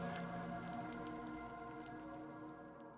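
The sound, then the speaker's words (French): Soft, steady rain patters continuously for a few seconds, heard faintly beneath a low sustained tonal drone, with no voices present. “Comme la rencontre entre une femme seule et un chat, un soir sous la pluie, le tout en bordure du périphérique.”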